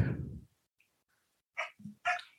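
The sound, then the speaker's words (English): A pet dog barks a few times in short, sharp bursts, with a brief pause between the first bark and a quick pair of louder barks near the end; no talking. “That's my dog.”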